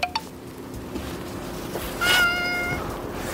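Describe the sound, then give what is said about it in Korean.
A domestic cat, having its upper jaw held to open its mouth for a pill, lets out a single drawn-out meow, fairly loud, rising then trailing off, against faint background noise and no talking. “자, 엄지와 검지를 사용해서 고양이의 위턱을 잡고 입을 벌려줍니다.”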